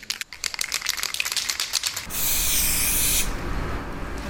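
A spray paint can rattles with quick rhythmic shakes for about two seconds, then releases a steady, loud hissing spray for just over a second, spraying the letter T.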